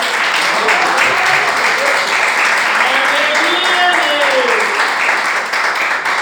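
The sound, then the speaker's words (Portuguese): An audience claps together in worship of the Lord Jesus, in a dense, steady burst of applause that fills the whole clip, with voices rising and calling out beneath the clapping. “Essa é a palavra que o Senhor colocou no meu coração e as palmas que adoram ao Senhor Jesus.”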